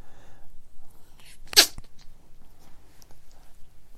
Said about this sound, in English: That's him sneeze. Got such a cute little sneeze, but at the same time, I can catch a cold from him, and then he can catch a cold from me.